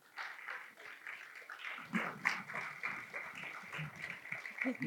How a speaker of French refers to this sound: si tu veux bien venir, applaudissez-le, allez-y.